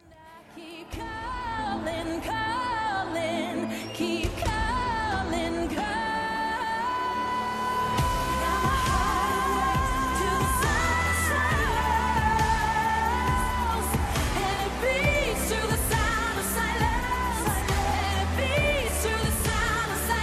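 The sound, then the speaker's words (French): A song plays at a steady, full volume for about twenty seconds, with a sustained melodic vocal line carried over rich instrumental backing that swells after a quieter opening. “On écoute un petit extrait.”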